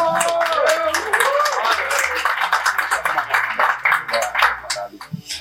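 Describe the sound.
A crowd breaks into sustained applause for the producer of the documentary Destino Terra, dense clapping for several seconds while a few voices call out and chatter underneath.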